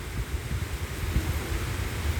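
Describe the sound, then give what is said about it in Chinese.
Steady, even hiss of rain falling on Alishan mountain and hitting leaves, with a soft low rumble underneath and no voices or distinct drops standing out. “然后那些声音是雨水打在叶子上的声音，是雨水下在阿里山上的声音。”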